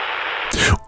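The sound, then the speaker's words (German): Radio static from a Spirit Box, a small radio-like device that never finds a station: a steady white or grey noise hiss that swells into a louder, harsher wash halfway through, cuts out briefly, then returns near the end. “Und dieses Rauschen nennt man das weiße oder graue Rauschen.”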